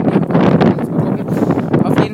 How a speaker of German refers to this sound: Leute, ich hoffe, der Wind knallt hier nicht zu heftig rein. Wir latschen hier gerade am Strand entlang.